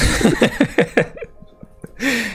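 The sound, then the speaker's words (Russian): A man sneezes: a quick string of short, breathy catches builds up, then a brief pause before a loud, hissing burst bursts out at the end. “А я, между прочим, сейчас чихнул.”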